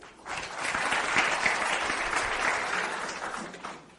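A burst of audience applause, many hands clapping in a dense, steady wash that swells quickly, holds for a few seconds, then tapers off. No one speaks over it.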